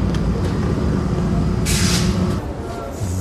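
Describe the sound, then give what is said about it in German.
A subway train rumbles loudly into a station, a deep steady roar with a sharp hissing burst of air brakes midway before the noise eases slightly. “Es wird jetzt gleich mal laut, weil die U-Bahn einfährt.”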